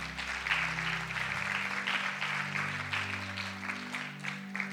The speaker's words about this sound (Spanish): Si lo crees, dale un fuerte aplauso al Señor.